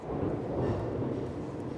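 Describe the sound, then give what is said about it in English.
A deep, continuous rumble of thunder from a heavy rainstorm outside rolls steadily for a couple of seconds, heavy in the low end and fairly loud, with no voices present. “That lightning is also a mystery.”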